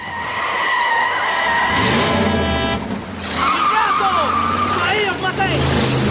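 A car brakes hard and swerves, its tires letting out a loud, sustained screech that wavers in pitch over a low engine rumble, then squeals again as it turns.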